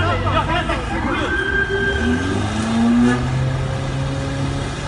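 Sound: car engine revving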